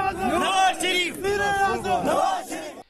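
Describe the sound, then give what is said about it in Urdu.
A crowd of party workers chants slogans in favour of former prime minister Nawaz Sharif as he arrives at the accountability court in Islamabad, in loud, rising unison shouts, sustained and energetic throughout, with overlapping voices swelling in waves. “احتساب عدالت پہنچنے پر کارکنوں نے میاں نواز شریف کا شاندار استقبال کیا ان کی گاڑی پر پھولوں کی پتیاں نچاور کی اور ان کے حق میں نعرے لگائے”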